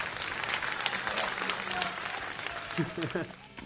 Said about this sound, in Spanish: Por favor, eh. sí. sí. sí, Un aplauso. Bravo. Bravo.